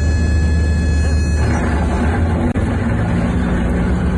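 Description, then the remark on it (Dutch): A very small Sky Arrow propeller aircraft drones loudly and steadily as it flies very slowly in to land, with thin high-pitched stall-alert tones over the engine that fade out partway through. “Is dit een propellervliegtuig? Ja, het is een, een zogeheten Sky Arrow.”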